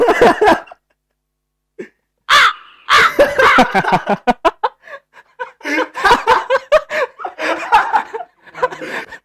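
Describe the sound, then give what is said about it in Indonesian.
A voice imitates a crow with a run of harsh, repeated caws, loud, mixed with chuckling and laughter over about nine seconds after a brief pause. “Gagak anjing dong.”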